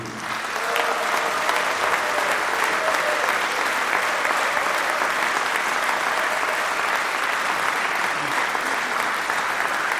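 Sustained applause from a large audience for jazz musician Jim McNeely, a dense, steady wash of clapping that starts almost immediately and stays loud and even for the full stretch without any voices standing out.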